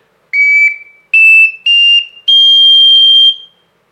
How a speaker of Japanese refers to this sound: 低い音を吹きたい高い音に行きたいとかいう時にこれだと足りるというオカリナができました。すごいトリプルオカリナ